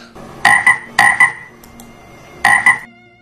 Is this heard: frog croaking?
yes